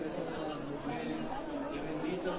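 A steady murmur of many voices talking at once, fairly close and continuous, with no single speaker standing out from the indistinct crowd chatter.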